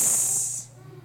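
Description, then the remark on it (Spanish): A voice imitates the hiss of the serpent in the garden from the Bible story: one loud, sustained, breathy hiss lasting about half a second, then cutting off, leaving only a faint low hum. “Pero el punto es, así en el jardín, y bueno, hoy es falta Navidad, soy como Santa Claus, aquí tiene este serpiente.”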